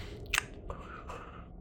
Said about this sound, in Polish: I kiedy to mówisz, to słyszysz taki to biegający z jaskini i takie mlaśnięcie słyszysz, takie